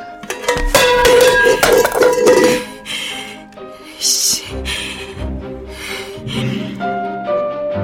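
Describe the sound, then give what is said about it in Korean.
A metal hotpot pan is thrown down and crashes loudly onto a hard floor, clanging and ringing as it bounces, followed by a few quieter rattles and a lingering metallic hum as it settles. “나는 전골 냄비를 바닥에 내동댕이 쳤다.”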